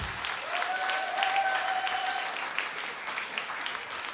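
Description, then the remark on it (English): A church crowd claps steadily for a few seconds, a little round of applause for two volunteers, a dense wash of hand claps, with a brief high whistle-like tone sliding in partway through before the applause fades slightly. “Little round of applause for two willing.”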